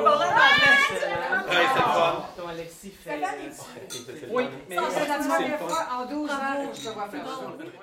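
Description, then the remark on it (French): Lively crowd chatter fills a basement at an opening-night party, many overlapping voices talking at once with bursts of laughter, with faint clinks of glasses in the mix. “Au sous-sol, on entend des pas, des rires, le bruit des bouchons qui sautent. L'ambiance est à la fête.”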